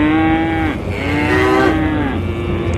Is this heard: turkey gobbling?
no